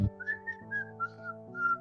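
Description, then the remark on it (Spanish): Someone whistles a short, bouncy melody of several distinct notes in a steady rhythm, the whistled opening of a song, clear, with a soft sustained musical backing underneath and no talking. “La que empieza con el, con el silbido”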